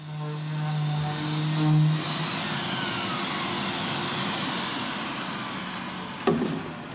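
In a carpentry workshop, a power sander runs steadily over plywood for a wall that is part of the set decor, a loud continuous grinding whir with a low motor hum that shifts in pitch early on, and a brief knock near the end.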